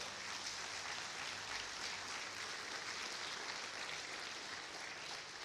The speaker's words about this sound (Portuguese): Aleluia! Você aplauda o Senhor então.